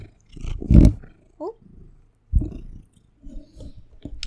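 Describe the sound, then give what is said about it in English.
A cat named Coco rubs its face against a microphone, making muffled bumps and rumbling scrapes in a few uneven bursts, with a person briefly exclaiming once partway through. “Well, Coco didn't have any meows for you, but she did rub her face on the microphone.”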